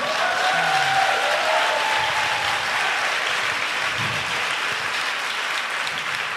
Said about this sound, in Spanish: ¿Por qué aplaudís exactamente? A la pregunta, a qué no nos la hemos hecho nosotras.